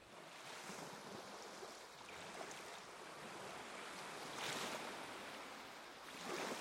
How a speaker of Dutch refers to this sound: Je dacht dus waarschijnlijk aan golven van de zee. Of tenminste aan de vorm van golven op zee.